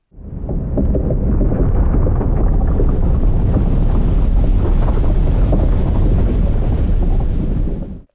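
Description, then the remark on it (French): Melting glacier ice producing a loud, continuous low roar threaded with faint crackles and pops, fading in and out over about eight seconds with no voices. “Ça, c'était le bruit d'un glacier qui fond.”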